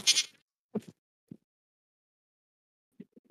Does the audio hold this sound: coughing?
no